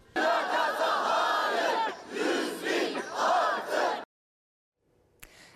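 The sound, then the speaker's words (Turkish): A crowd of teacher candidates protesting with their diplomas, demanding appointments, chants slogans loudly in unison, the shouted phrases rising and falling in rhythmic bursts for about four seconds before cutting off into near silence. “Atanamadıkları ve başka işlerde çalıştıkları için diplomalı eylem yaptı öğretmen adayları.”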